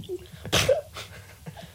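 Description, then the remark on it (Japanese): A person imitates a dog's sneeze: a sharp, breathy snort bursting out near the middle, followed by a softer sniff-like puff, fairly loud with no speech. “犬のくしゃみならどこでもできるよ犬のくしゃみ”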